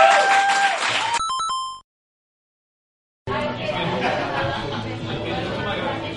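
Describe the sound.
An audience claps and chatters, then a brief chiming tone sounds before a second of silence. A dense, steady wave of applause mixed with crowd voices follows and continues to the end.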